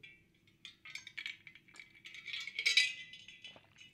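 Ice cubes clink and rattle against a glass of margarita in a quick, uneven flurry of bright taps that swells toward the middle, over a faint low hum with no talking.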